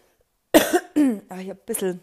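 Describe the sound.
A single short cough bursts out from a person who currently has a slight cough, then the person starts talking right after it in a relaxed voice.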